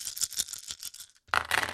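Dice clatter and rattle in a quick series of bright, rapid clicks, then a brief silence before a louder burst of tumbling rattles. No one speaks.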